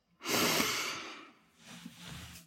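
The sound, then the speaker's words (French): A person takes a deep, energizing breath drawn in with a broad airy rush, followed by a softer, shorter exhale, with no talking. “Prenez quelques grandes inspirations dynamisantes.”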